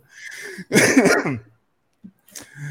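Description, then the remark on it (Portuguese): A raspy cough or throat-clearing bursts out loudly for under a second, followed by a brief pause and a softer second rasp near the end. “Bem, até fiquei com tosse aqui.”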